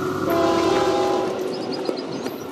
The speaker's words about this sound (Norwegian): Et tog med drømmer er på vei nordover, gjennom Mexico og mot USA, med håp om et bedre liv. Unge menn klamrer seg fast på taket, og noen henger langs siden av toget som fyker gjennom sukkerrørsmarkene sør i Mexico.